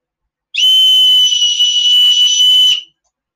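A safety whistle from an SOS kit for going into the forest is blown in one sustained, shrill blast lasting a little over two seconds, piercing and loud with a steady high pitch, then stopping abruptly. No one speaks.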